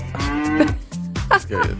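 A cow moos loudly, a long low drawn-out call followed by a couple of shorter rising moos, with no talking.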